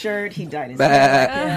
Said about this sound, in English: look, you hear that? You hear that? That sound was a goat sound.